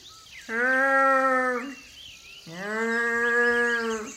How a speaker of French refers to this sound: Qu'est-ce que c'est que ce bruit C'est le bruit d'un animal, c'est sûr mais on dirait un animal malade ou blessé. En tout cas, il n'a pas l'air bien.